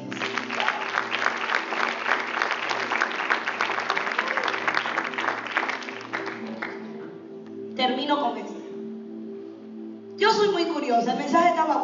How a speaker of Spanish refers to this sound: Dale un aplauso.